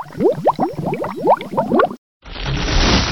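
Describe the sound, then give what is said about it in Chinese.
A quick run of about eight bubbly blips, each rising in pitch as it glugs up, from many bubbles rising to the water surface, followed by a brief pause and then a steady, hissing wash of churning water. “突然，水面上冒出了许多气泡。”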